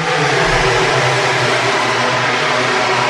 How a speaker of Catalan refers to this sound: No em sent ara que passen les motos aquí mateix amb tota la fressa que fan Nova passada per meta, Viñales, Espargaró, Oliveira, Martins, Arco, Miller, Satèlex, Márquez.